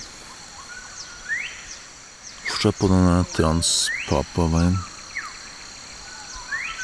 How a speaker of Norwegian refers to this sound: Det er herlig å våkne om morgenen i jungelen. Masse lyder. Fugler og insekter.